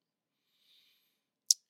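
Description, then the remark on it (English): A faint soft rustle, then one sharp, bright metallic clink as a new puppy named Simba moves about and rattles something. Otherwise quiet, with no talking. “if you guys hear the the clinking and clanking in the background, that's my dog Simba.”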